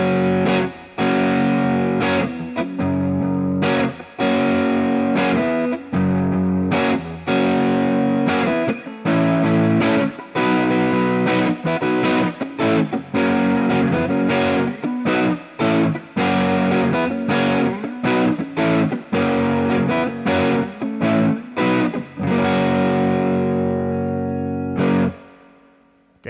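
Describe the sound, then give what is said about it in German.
Heavily distorted electric guitar with a Les Paul tone strums a rhythmic sequence of thick, crunchy chords, played loud with brief choppy gaps, then rings out and stops near the end. “Nochmal die gleichen Akkorde und dann vielleicht nochmal irgendwas Fetteres.”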